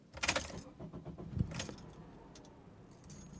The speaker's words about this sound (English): This episode right now, being recorded in my 2008 gold Honda CRV. If you don't believe me, just listen.